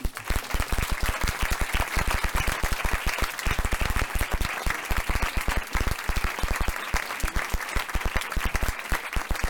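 Sustained audience applause called for by the host as a huge round of applause for a speaker, dense and steady with many overlapping claps forming a loud, continuous crackle that holds for about ten seconds without voices breaking through.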